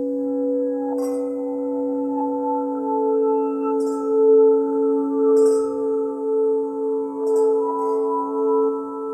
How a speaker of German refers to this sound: Gläser stoßen an.